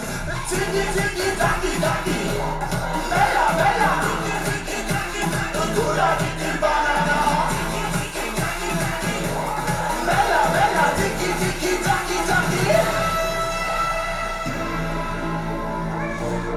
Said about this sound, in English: yeah, this song is it's crazy. It's party.